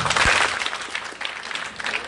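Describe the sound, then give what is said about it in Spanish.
An audience at an awards ceremony claps together in a dense, steady burst of applause, many hands overlapping into a continuous crackle that holds fairly even in loudness for about two seconds. “Entonces un aplauso si les gustó.”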